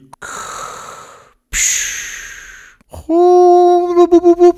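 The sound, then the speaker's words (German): A voice imitates garbled underwater talk: two breathy, blowing bursts followed by a warbling, wobbly hum that pulses and bubbles at the end, fairly loud. “Aber wenn man unter Wasser probiert zu reden, dann tönt alles ein bisschen anders.”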